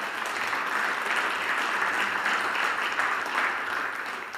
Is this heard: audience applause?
yes